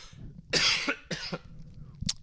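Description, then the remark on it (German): Two loud coughs burst out in quick succession, followed by a brief softer throat sound near the end, with no talking. “Jetzt muss ich husten”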